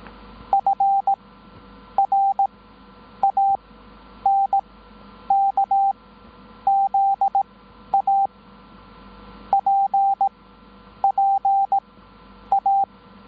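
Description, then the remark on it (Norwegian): Morse code beeps played as a practice sample for a Morse code listening contest, in a single steady pitch, keyed in quick clusters of short and longer pulses with brief pauses between groups, over a low background hum and hiss, with no voices. “Vinneren av dagens morsekonkurranse, som var Frank Zappa”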